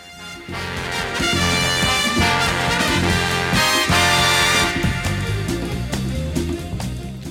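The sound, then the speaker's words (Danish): A loud, dense big band jazz recording plays on its own, with brassy horn harmonies over a driving rhythm section and steady bass, sustained at full volume throughout. “Med …, det skal vi lige høre her.”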